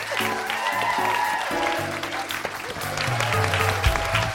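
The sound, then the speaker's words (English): An audience at a live recording of The Guilty Feminist at the Soho Theatre claps continuously for about four seconds, a dense, steady patter of many hands at even loudness, with low sustained musical tones running underneath. “I must should be applauded.”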